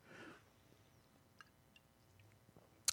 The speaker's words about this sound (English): Sorry, both both, ta- of us both taking a sip of beer at the same time. Yeah, Yeah, bad- bad timing. Normally, Um, normally we we uh, go opposite.